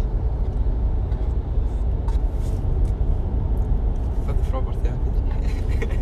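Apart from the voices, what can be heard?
inside a car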